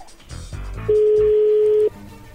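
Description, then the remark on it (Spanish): A telephone being dialed: after some brief clattering handset noises, a loud steady phone tone holds at one pitch for about a second, then cuts off. “Vamos a llamarle, ¿que le llame Lobo? ¡Llámale Lobo!”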